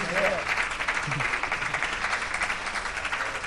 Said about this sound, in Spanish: un fuerte aplauso, por favor, así la despedimos.